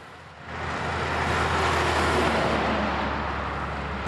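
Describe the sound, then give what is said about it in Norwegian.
Steady roar of traffic rushing past on the new E18 highway, a broad continuous whoosh of vehicles that swells after the first half-second and stays loud, with no voices. “Ikke langt unna suser trafikken på nye E18.”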